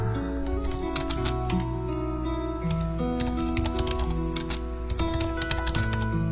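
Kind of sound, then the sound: household object, typing on a keyboard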